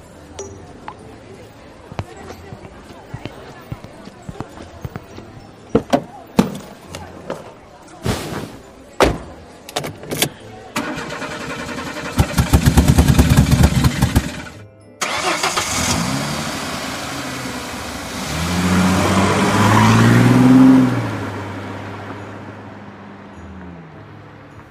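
A car engine turns over after a series of sharp clunks and knocks, then revs and drives, its rumble swelling loudly before fading as the vehicle pulls away.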